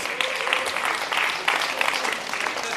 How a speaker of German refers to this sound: Ja, muss man, so, ja, kann man mal klatschen.